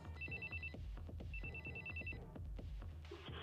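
A telephone rings twice in short, trilling electronic bursts separated by a brief pause, fairly clear over a steady low rumble and scattered background clatter.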